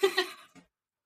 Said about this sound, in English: I'm so sorry if you can hear my cat in the background. it's fine. I don't know if you can, but it's she's very loud.